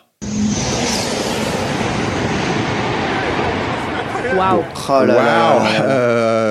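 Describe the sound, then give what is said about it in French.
A Japanese high-speed maglev train roars past on a record speed run of 603 km/h. A loud, sustained rushing whoosh lasts about four seconds and cuts off abruptly, followed by people speaking. “J'ai vu les et ça fait ce bruit là.”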